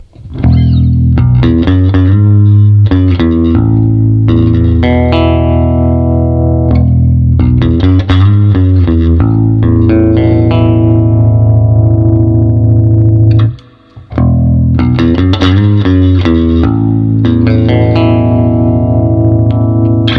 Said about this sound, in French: Et vous avez un quatrième bouton qui permet dans les graves. Du coup, d'obtenir ce son hyper claquant euh, qui, quand on le joue au Mediator avec un peu de, slap back est ultra jouissif.